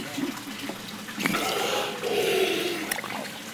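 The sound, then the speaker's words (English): A large green sea turtle takes a couple of sharp, breathy gasps at the surface, set against a steady wash of splashing, trickling water. “If you're wondering what that sound is, it's the sound of a large green sea turtle taking the occasional breath.”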